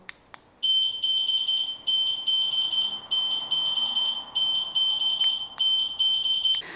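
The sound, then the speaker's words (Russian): A child locator keyfob alarm, with a key ring and small antenna, is set off by pressing its button. It blares a shrill, piercing electronic tone, repeating in quick chopped bursts for several seconds after a couple of faint clicks. It sounds loud, with no talking. “Когда вы чувствуете, что ребенок отошел от вас далеко, вы можете нажать на вот эту вот кнопку и услышать следующий сигнал.”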